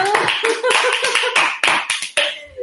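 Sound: applause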